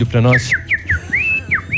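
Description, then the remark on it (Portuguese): After a brief spoken word, someone whistles a string of short, bright bird-like notes, about six quick rising and falling chirps, fairly loud, imitating the mating call of the chestnut-eared aracari (araçari-castanho). “tá aí, esse é o canto do pássaro lá de do Parque das Aves.”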